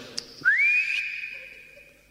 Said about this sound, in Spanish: bueno, yo le voy a pegar un silbidito al sombrero y capaz que vuelve.